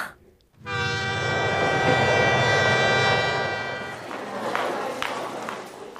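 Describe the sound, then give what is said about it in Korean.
A train sounds a long, loud horn blast for about three seconds, followed by the rumble and clatter of the delayed train moving along the tracks as it arrives at a station in Seoul. “기차가 연착이 돼가지고요.”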